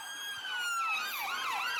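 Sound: ambulance siren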